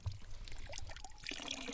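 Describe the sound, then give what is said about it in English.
Water from a fresh mountain spring on a trail flows and splashes steadily as people drink from it, with bubbly gurgles over a continuous rushing trickle and no voices. “drinking from a fresh mountain water spring.”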